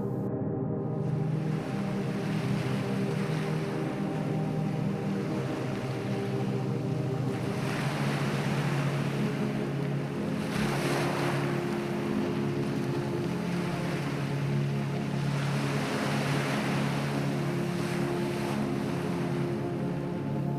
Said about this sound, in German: Vor dir dehnt sich das Meer unendlich weit aus. Wellen rauschen leise an den Strand und der salzige Geruch in der Luft erreicht deine Sinne.